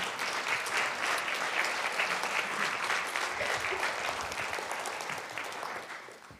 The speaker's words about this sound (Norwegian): Eh, så hvis du kan komme opp nå, så kan, og så kan vi gi henne en sånn god applaus på, på veien.